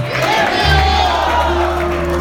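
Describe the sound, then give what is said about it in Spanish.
A loud crowd applauds a visitor at a fifth-anniversary evening gathering, cheering and shouting over a steady wash of applause, with a low sustained hum running underneath throughout. “Un aplauso a por él.”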